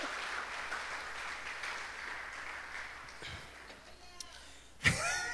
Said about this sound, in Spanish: una ofrenda de palmas al Rey de Reyes.